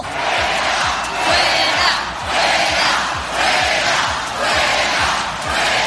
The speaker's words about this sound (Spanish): gritos de fuera, fuera, esta convocatoria ha sido organizada por Unión del Pueblo Navarro y apoyada por Ciudadanos y el Partido Popular.